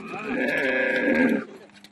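A camel waiting to be loaded to carry salt slabs to the next town in Ethiopia lets out one long, loud, bleating groan with a rich, buzzing tone, holding steady for over a second before cutting off, leaving only faint background noise.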